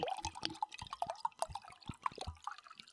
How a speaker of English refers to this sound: Are you peeing? Nope, that was me pouring some wine.